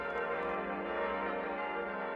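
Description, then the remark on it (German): A full peal of the Würzburg Cathedral bells, all of its bells ringing together in a dense, sustained wash of overlapping tones, loud and continuous with no pauses or voices. “Plenum ist immer das Folgeleute einer Kirche mit allen Glocken, die es gibt.”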